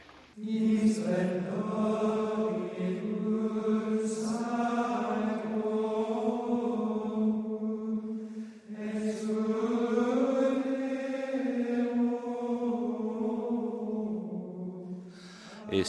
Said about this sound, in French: c'est le chant de la communion par les moines de l'abbaye de Saint-Pierre de Salem. Le chant grégorien, évidemment, il est très présent à la messe.